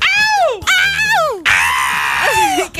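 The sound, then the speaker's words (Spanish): A voice imitates a singer's famous high-pitched scream, three loud strained shrieks in a row, each sliding and wavering, raw, drawing chicken-like squawks from the listeners' ears. “ustedes saben el, el famoso grito, ¿no?”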